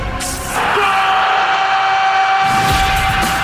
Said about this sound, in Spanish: Mientras el grito de gol está ahí entre acequia y acequia. Fútbol de pura cepa.